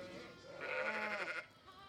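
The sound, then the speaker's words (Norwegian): A wavering, quavering bleat rises in the middle, with fainter bleating of sheep and black lambs around it over quiet outdoor background noise, as the sheep are herded under open sky by a prison inmate as part of his sentence. No one speaks. “Gjete sauer under åpen himmel.”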